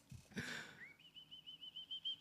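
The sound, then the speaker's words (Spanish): After a sharp breathy intake, a person whistles a high, sustained tone that rises in pitch and then wavers in a steady pulsing warble, clear with no talking. “Cuando, escuché ese chiflido me cagué de risa, güey.”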